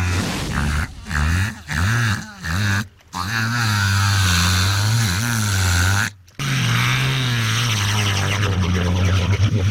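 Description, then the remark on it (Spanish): An orca mimics a motorboat engine in trouble while trying to tow the boat: a few short, chugging bursts give way to a long, loud, wavering drone that briefly cuts out and restarts, with no talking. “Y observando a las lanchas de motor, se le ocurrió hacer la imitación casi exacta de un motor de lancha en apuros.”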